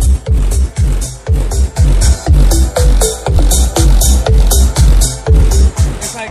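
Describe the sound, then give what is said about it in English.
Loud, booming bass from a truck's Skar Audio sound system, with two 12-inch EVL subwoofers in a Skar Audio box and 2,000-watt Skar Audio amps, pounds out a steady thumping beat under music, heavy, the low end throbbing continuously with no one talking. “all you can hear is the bass and the music out here”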